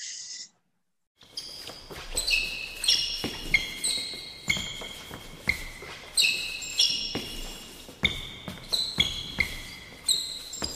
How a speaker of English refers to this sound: I'll take the sounds of sneakers on a basketball court.